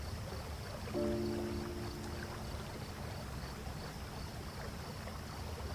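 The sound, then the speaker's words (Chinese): A river babbles and rushes in a steady, unbroken wash of water noise, with a brief faint tonal hum around the first second and no voices. “你就这样放松的被潺潺的河水冲刷着，感觉全身都吸饱了滋养的水分。”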